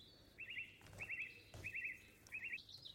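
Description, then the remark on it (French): Bird calls in a jungle-like setting: four short, bright warbling trills repeat at fairly even intervals over a faint, rustling background, with no one talking. “Ça me fait penser à, à la jungle avec des oiseaux et euh, un perroquet, je crois.”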